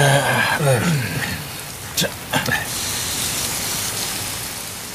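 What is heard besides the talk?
rain falling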